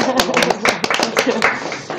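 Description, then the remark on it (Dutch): An audience applauds itself at the close of a live show, with dense, overlapping claps at an even, lively pace, fairly loud and sustained throughout, with a few sharper individual claps standing out. “Ja, applausje voor het publiek, even iets.”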